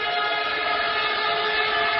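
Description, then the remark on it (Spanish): A loud air horn, sounded by a spectator in the stands, blares in one continuous, steady blast for about two seconds, with no break and no voices. “Por favor, dejen de dar a la bocina.”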